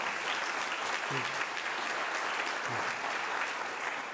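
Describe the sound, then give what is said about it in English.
An audience applauds a high school graduate steadily, a dense, even wash of clapping that holds at a constant level throughout, with a couple of brief low vocal sounds poking through the noise. “You guys can give a little applause.”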